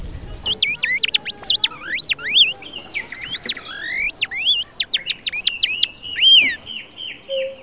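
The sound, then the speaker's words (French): A person whistles an imitation of nightingale song: rapid, sweeping high trills and warbled phrases, fairly loud, with a faint background hum. “Moi, je cherchais être comme un vrai oiseau. Ici, en France, les gens, ils aiment Rossignol. Tu écoutais Rossignol”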